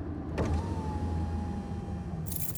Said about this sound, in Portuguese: Nós começamos a seguir um carro cheio de garotas. Elas pararam! Abaixa a janela!